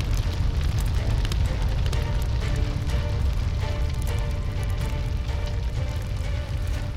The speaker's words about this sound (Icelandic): Uppreysnamenn sendu merki sín á milli yfir skarkalan, snarkiðu í brennandi húsunum að því að berja á trumbur, ringja bjöllum og blása í stóra kuðunga.